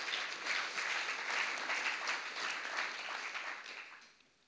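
A burst of applause from a small group, dense steady clapping for about four seconds before it quickly fades out. No one speaks over it.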